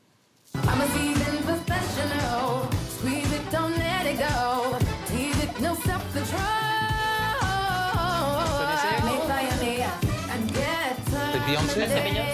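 An AI-generated pop song with a cloned singer's voice kicks in abruptly after a split second of silence, the sung lead riding over a full, steady backing track at a loud, even level.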